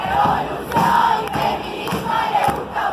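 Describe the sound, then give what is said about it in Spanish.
A large crowd gathered in Plaza de Mayo shouts the protest chant "Ni una menos" in unison, loud and sustained, with repeated accented beats roughly every half second and a dense roar of many voices. “Una multitud se concentró en Plaza de Mayo al grito de Ni una menos”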